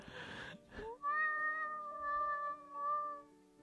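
A cat named Newton lets out one long, drawn-out meow, clear and steady in pitch with a slight waver, preceded by a brief burst of rustling noise. No one speaks.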